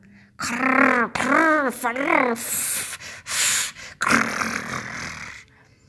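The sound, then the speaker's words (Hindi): Loud vocal mimicry of a father's heavy snoring, likened to rain and a storm together: wavering voiced lip-flapping sounds, then rough, breathy nasal snorts and hissing bursts in quick succession, made by growling through the nose and flapping the lips, with no spoken words. “पर कभी कभी अप्पा इतनी ज़ोर से खर्राटे लेते हैं मानो बारिश और तूफान एक साथ आ गए हों मैं अपनी नाक गुर्राते हुए और अपने होठों को फड़फड़ाकर ऐसी आवाज़ निकाल सकती हूँ”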